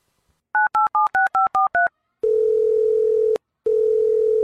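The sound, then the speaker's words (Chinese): Seven quick two-tone keypad beeps as a phone number is dialed to call a senior schoolmate, followed by a steady, low-pitched phone tone that stops briefly and then resumes. No one speaks. “我先给学长打电话，让他立刻修改，好吧？”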